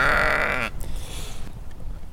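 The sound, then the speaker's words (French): A single loud, wavering bleat from a ewe at a ewe-breeding farm fills the first moment, then breaks off into quiet outdoor ambience with faint rustling and low background noise. “Et puis intéressée aussi par, le, par l'élevage des brebis.”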